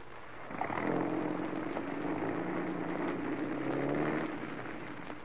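A car engine starts up and runs with a steady low rumble for about three and a half seconds, then drops away as the vehicle drives off. No voices are heard.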